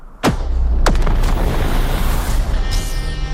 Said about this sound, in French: Explosion. C'est épique hein, quand même.